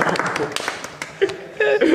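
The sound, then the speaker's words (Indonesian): A small group claps their hands in a quick, scattered burst that tapers off, with voices talking and a brief laugh over the end. “Jadi Tepuk tangan lagi”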